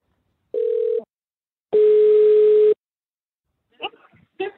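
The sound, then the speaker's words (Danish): An outgoing phone call's ringback tone, placed by Radio 4 to a listener in Holstebro: a short steady beep, a pause, then a longer steady tone, followed by brief faint rustling or speech-like sounds near the end. “ringede i går til en af de en af dem, der efterlyste hjælp,”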